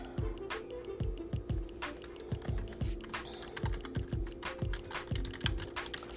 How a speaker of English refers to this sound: Yes, I'm typing.